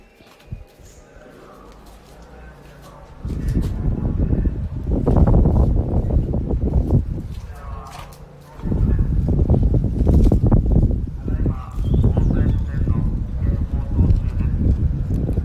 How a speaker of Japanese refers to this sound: これ工事の音ね茶花の旧役場の工事今取り壊し作業してますけども、まあ、何が立つんでしょうかね分かりませんけども